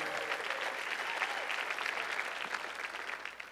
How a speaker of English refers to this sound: So, why don't you give yourself a big round of applause for being at church on a Wednesday night tonight?